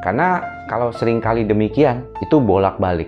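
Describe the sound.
A WhatsApp message notification chime on a phone rings out in steady electronic tones, once early and again briefly later, playing quietly beneath a man who keeps talking throughout.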